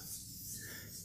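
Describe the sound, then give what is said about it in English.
Soft, steady dry rubbing of fingers across the matte cover of a magazine just taken out of its bag, a faint papery hiss that continues without pause for about a second, with no talking. “Oh, that's that's the sound of a matte cover.”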